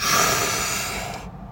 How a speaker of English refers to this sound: So when I say static breathing, I mean breathing that makes your whole body move. Like you sit straight up, you take a deep ass breath,